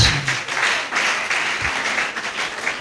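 audience clapping hands

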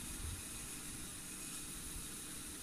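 electric fan running

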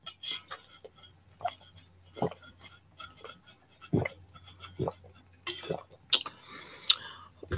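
sipping and swallowing water

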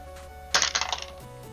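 die being rolled

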